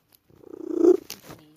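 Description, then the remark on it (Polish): A female domestic cat named Lunia purrs, a rhythmic rumbling pulse that swells steadily louder over about a second, then breaks into a couple of brief, sharper chirping sounds. “Jest moja kotka.”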